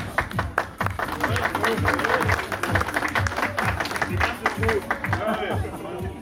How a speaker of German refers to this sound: Also die beiden Mannschaften brauchen sich wirklich nicht zu verstecken und ich denke mal, das hat nochmal einen Applaus für die beiden Mannschaften auf jeden Fall verdient, ja?